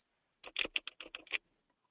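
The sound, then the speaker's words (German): A quick burst of about eight sharp keyboard clicks from someone typing on a computer keyboard with an open microphone, in an uneven rhythm, then silence. “Äh, irgendwer ist gerade mit dem Mikro mit drin und, und, und klappert auf der Tastatur.”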